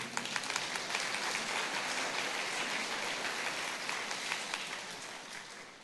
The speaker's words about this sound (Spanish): Dale otro fuerte aplauso a nuestro Dios.